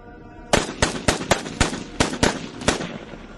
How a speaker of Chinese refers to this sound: 砰砰砰，先是一梭子，打翻了压在最上面的几具干尸。干尸的反应也不慢，我和孙胖子的枪声一响起，众干尸就以飞快的速度四下散开。